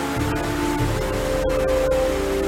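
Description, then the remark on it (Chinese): Heavy rain pours down in a steady, dense hiss that fills the whole clip without pause, with a faint low hum running underneath and no voices. “闪电越来越亮，雷声越来越响，哗哗哗，下起雨来了。雨越下越大，往窗外望去，树啊，房子啊，都看不清了。”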